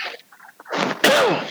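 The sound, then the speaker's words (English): A single loud sneeze: a short breathy intake builds up, then bursts into a sharp, explosive blast with a falling voiced tail. Faint murmurs come just before it. “bless you.”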